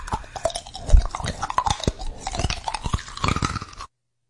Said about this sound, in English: chewing his peanuts into a paste was hilarious.